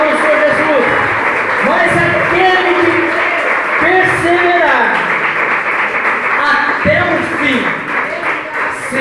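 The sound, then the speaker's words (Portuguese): An audience applauds the Lord Jesus steadily, a dense, loud wash of clapping hands that lasts throughout, with voices calling out and cheering over the top. “Você pode aplaudir o Senhor Jesus? Pode aplaudir, aplaudir.”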